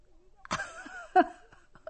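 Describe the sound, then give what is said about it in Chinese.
A man laughing hard at a joke breaks into laughter-tinged coughing: a harsh burst trailing into a strained, voiced wheeze, a second sharp cough, then a few faint, short catches of breath. “他觉得非常有趣，笑得咳嗽起来了。”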